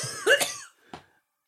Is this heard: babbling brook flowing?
no